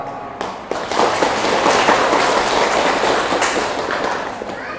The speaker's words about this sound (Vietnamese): nếu quý vị thấy à, văn hóa ẩm thực này là có thể thực hiện được đó thì hãy nên dành một tràng vỗ tay thật là, là to